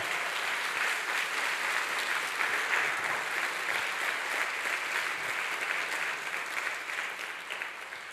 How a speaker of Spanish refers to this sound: Ahora sí, dele fuerte ese aplauso al Señor.